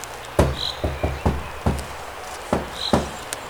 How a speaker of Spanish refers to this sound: Acá hay una puerta. Es raro esto. A ver, voy a tocar.